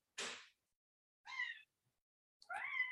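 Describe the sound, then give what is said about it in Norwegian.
A cat meows: a short breathy burst, then two distinct mewing calls with rising, wavering pitch, separated by pauses of silence. No one speaks. “Kom en katt?”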